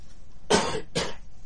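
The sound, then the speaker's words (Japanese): Two quick, harsh coughs in a row, fairly loud, with a short pause between them and no talking around them, from a man with a lingering sore throat, cough and runny nose. “まだ喉とね、喉と咳と鼻水ですよ、僕はもう。”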